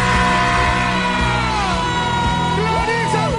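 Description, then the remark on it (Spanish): A person yells loudly and excitedly in celebration of Clarisa Molina winning Mira Quién Baila, sustained for the whole moment, the voice swooping up and down in pitch with other voices clamoring behind. “Pero ¿por qué gritó tanto, Dios mío?”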